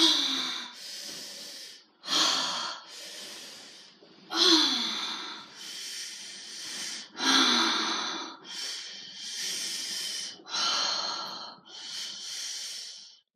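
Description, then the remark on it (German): Deep, heavy breathing during an orgasm, in a steady rhythm: about ten loud breaths with forceful exhales and a faint voiced edge, like intense panting with no talking. “Also die tiefe Atmung fand ich äh, sehr bezeichnend.”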